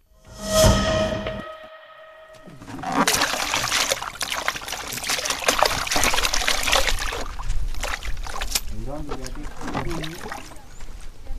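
Steady water trickling and splashing as someone washes their face and hands in Kenya, a continuous wet patter lasting several seconds after a brief tonal sound at the start.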